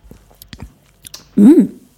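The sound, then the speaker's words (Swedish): Soft, irregular chewing of a healthy variant of a semla bun made with blended almond paste, a few quiet moist clicks and smacks, followed by a loud, short hummed 'mm' from a voice with a rising then falling pitch. “jag vet inte hur mycket semla den här smakar, men eh, jo, men lite faktiskt.”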